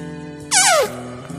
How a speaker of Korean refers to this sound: 스테디셀러입니다. 방귀 소리.